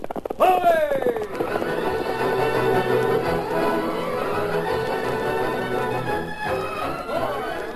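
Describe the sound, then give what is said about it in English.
Galloping hoofbeats of the horse Silver from The Lone Ranger pound in a steady, driving rhythm beneath loud, sweeping orchestral music that fills the whole clip without a break. “From out of the past come the thundering hoofbeats of a great horse, Silver.”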